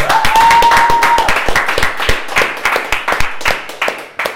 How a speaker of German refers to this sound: Eine Runde Applaus!